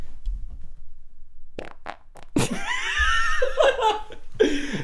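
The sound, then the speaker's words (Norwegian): A short, low rumbling fart sounds near the start, followed by a few sharp bursts and then loud laughter from a couple of people. “En, eh, en, en bank med lydfiler av gode eh, ja. promp.”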